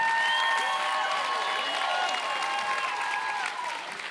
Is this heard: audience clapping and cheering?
yes